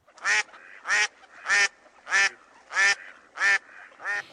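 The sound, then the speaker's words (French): A duck quacks seven times in a steady, evenly spaced rhythm, each quack loud and nasal, with no other sounds around it. “Est-ce que tu as déjà adopté ton canard pour la course de canard du samedi 24 septembre à Célesta Sur l'île, ces canards en plastique s'élanceront”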